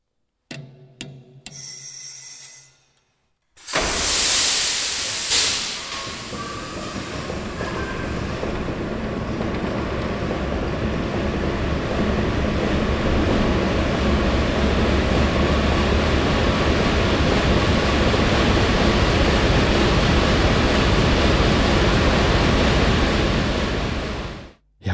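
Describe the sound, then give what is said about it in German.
A large ship's diesel engine is started by moving a golden lever from stop to start: a few short hisses and clanks, then a sudden blast of air as it fires into a loud, steady, deep rumbling roar while running up toward 250 revolutions. “Also das ist das größte Gefühl eines Maschinisten, den goldenen Hebel von Stopp auf Start zu machen. Äh, man hat vorher schwitzige Hände, läuft alles, springt der Diesel an.”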